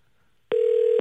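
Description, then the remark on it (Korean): After a brief silence, a telephone line rings out with a steady electronic tone that holds evenly until the end, with no voices; a call placed to someone waiting outside a shop selling seasoned skate (hongeo muchim). “전화 한번 걸어주세요”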